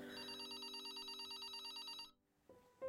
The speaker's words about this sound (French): J'étais couchée, donc je l'attendais, euh, et mon téléphone, il sonne, le fixe.